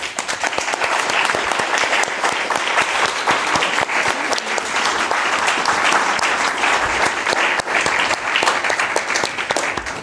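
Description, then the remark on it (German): Sustained audience applause, a dense crackle of many hands clapping at steady loudness for about ten seconds, with no speech over it. “Applaus.”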